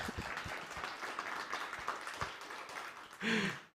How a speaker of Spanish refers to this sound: nos están visitando los apóstoles, denle un aplauso a los apóstoles porque dijeron, vamos a...